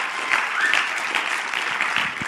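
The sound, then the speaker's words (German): Audience applause for a person on stage, a steady wash of many hands clapping at an even, moderate loudness throughout, with no voices standing out above it. “Machen wir doch ihm einfach auch einen Applaus geben.”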